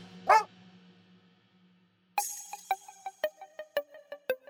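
A dog gives one bark, then after a short pause breaks into a quick, steady run of about a dozen sharp, fairly loud barks, with no voices.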